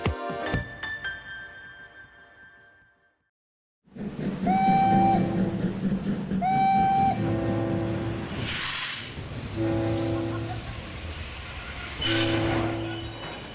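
After a brief silence, a train rumbles loudly while its wheels and brakes give off repeated high-pitched metallic squeals, the heavy clatter continuing as it slows to a stop.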